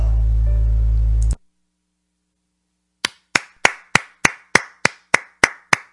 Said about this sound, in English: All you can do with that is clap because that's fantastic.